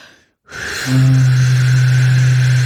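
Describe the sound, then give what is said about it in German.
A low wind instrument sustains one steady note, preceded by a burst of airy breath noise. A loud hiss of extra breath continues over the tone, with no voices. “Und jetzt mit einem zusätzlichen äh, extra ähm, ähm, äh, Rauschen”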